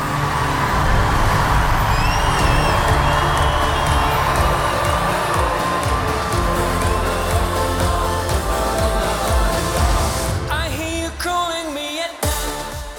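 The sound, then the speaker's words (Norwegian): A crowd of about 8,300 fans roars and cheers continuously at the opening of the Melodi Grand Prix 2020 final at Trondheim Spektrum, Trondheim, Norway, a dense wall of shouting and whooping with scattered high-pitched screams, staying loud throughout before a few sharper whistles near the end. “Og det er 8300 elleville trøndere og MGP-fans i arenaen.”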